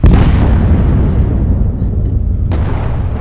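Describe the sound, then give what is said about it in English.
A loud cannon blast from a video game opens with a sharp crack and rolls into a long, rumbling boom, followed by a second burst near the end, with no one speaking. “I dodged the cannon though!”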